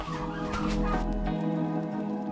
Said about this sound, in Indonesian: Kalkun-kalkun ini tuh makannya sehari dua kali, makannya pagi dan juga siang hari. Ayo makan yang banyak. Dan makanan favorit dia ya hijauan yang seperti ini. Tuh lahap banget.